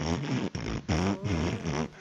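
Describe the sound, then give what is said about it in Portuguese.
A voice makes a string of buzzing, sputtering mouth noises imitating farts, about four wobbly bursts with short breaks between them, loud, made inside a locked bathroom stall to make others think they were defecating. “Que é pros caras pensar que a gente tava dando umas, umas peidadas, fazendo cocô.”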